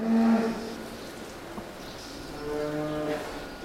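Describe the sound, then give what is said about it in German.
A test cow moos loudly, a long droning low call that swells at the start and again near the end, with faint ambience underneath and no one speaking, at the Greenfeed station of the Versuchs- und Bildungszentrum Rinderfütterung on the Staatsgut Axelschwang. “Nicht jede Versuchskuh, räumt der Forscher Ettle ein, sei gleich in die sogenannte Greenfeed-Station zu bekommen”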